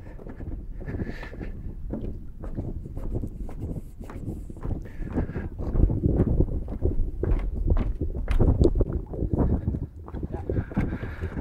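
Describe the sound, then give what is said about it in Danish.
Steady footsteps crunch along outdoors at a brisk, even pace as a person walks about 1300 steps out and around a spit of land, with gusts of wind rumbling over the mic throughout. “Jeg er omme på den anden side nu, og jeg kan konstatere, at der er 500, meter, eller 500 skridt ud fra den ene tange, og 800 på den anden tange, så jeg er gået 1300 skridt, og imens så har de svømmet 20 meter.”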